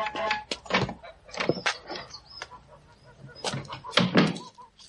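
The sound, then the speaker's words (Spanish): A grey-headed goose being killed squawks and honks frantically in a series of loud, harsh bursts, with brief pauses and flurries of agitated noise between them. “El de la cabeza gris, que está en medio. Ah, muy bien. Mátalo y llévatelo.”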